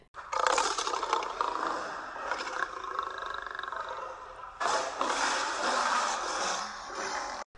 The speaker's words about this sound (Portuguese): Vou acordá-lo então, disse o leão. Minha voz é a mais forte da selva. Ele sacudiu a juba e começou a rugir.